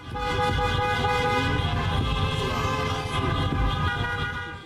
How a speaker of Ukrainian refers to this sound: Через місто до центру їдуть тиснучи на клаксони майже 400 автомобілів.